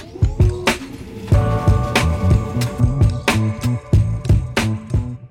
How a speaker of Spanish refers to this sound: Este es el sonido de la prusa, una de las impresoras 3D que hay en el estudio Tacho.